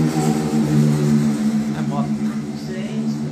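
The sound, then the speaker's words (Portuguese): A motorcycle rumbles with a loud, steady engine drone that holds for a few seconds and then eases slightly as it moves off, with faint voices underneath. “moto É, tem moto em qualquer lugar agora.”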